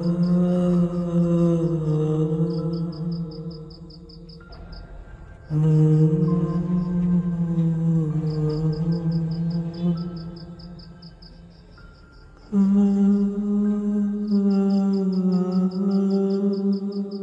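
Low, eerie humming in long sustained tones that slowly waver in pitch, broken by a couple of brief pauses, over a steady, rapid high chirping like crickets in the background.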